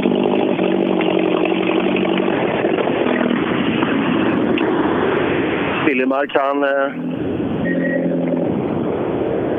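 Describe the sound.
A car engine drones loudly and steadily throughout with a rough, raspy exhaust note from a problem with the exhaust manifold, while a man talks over the constant noise.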